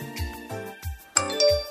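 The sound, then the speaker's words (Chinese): A text message notification chime plays a quick run of bright, bell-like notes, then settles into a brief ringing tone. Moderately loud, with no one talking. “是你的短信”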